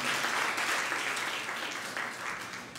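An audience applauds for the Lord steadily, a dense wash of many hands clapping at once, sustained and fairly loud before easing slightly toward the end.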